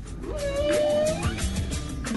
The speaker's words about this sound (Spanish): las ballenas yubarta todos los años cantan para llamar a los turistas a que las visiten. Usted también las puede escuchar.